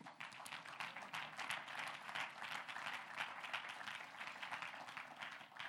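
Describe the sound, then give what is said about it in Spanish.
A crowd gives an applause to the Lord, clapping steadily: many hands in a dense, continuous patter that stays fairly loud throughout, with a faint murmur of voices underneath. “Un aplauso al Señor.”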